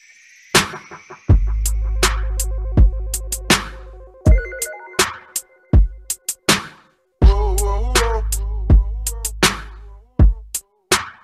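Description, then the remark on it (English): A music track plays with a deep, booming bass line under sharp, snappy percussive hits and bright synth melodies, loud, with no voices. “Maybe we should just play a little bit yeah. of the track first, Sounds good.”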